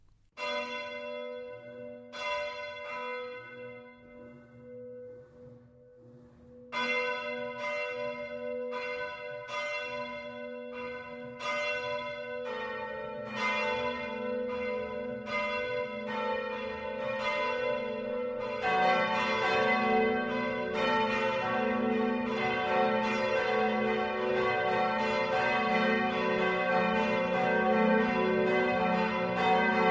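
Church bells ring the Sunday 12 o'clock midday peal in Falkenberg, Upper Palatinate, Bavaria, Germany, beginning with a single bell and building as more bells join in, their strikes overlapping into a dense, resonant wash with no voices.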